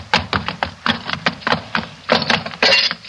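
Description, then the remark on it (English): A scuffle of sharp, loud knocks and thuds in quick irregular succession, ending in a couple of longer crashing bursts as a lantern is smashed during a fight between Holmes, his companion and Levesque, a murderer armed with a knife. “the lantern's smashed.”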